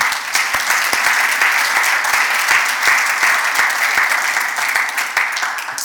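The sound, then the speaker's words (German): Steady morning audience applause, a dense wash of many hands clapping at once with sharp individual claps standing out, fairly loud, sustained evenly without voices. “Lass uns nochmal klatschen für die Zuschauer heute Morgen.”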